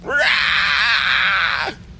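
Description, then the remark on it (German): A human voice imitates an oversized crawling creature's screech after the creature is slapped on one of its hind limbs: one loud, harsh, sustained shriek lasting about a second and a half, rising sharply at the start and cutting off abruptly. “Es kreischt”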